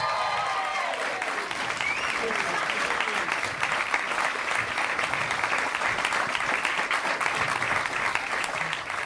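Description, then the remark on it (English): A comedy festival audience claps steadily for about nine seconds to welcome actor Ryan Moloney, introduced as Jarrod Rebecchi, attorney at law: a dense, even patter of many hands with a faint murmur of crowd voices underneath and a few scattered whoops early on. “Big round of applause for Jarrod Rebecchi, attorney at law.”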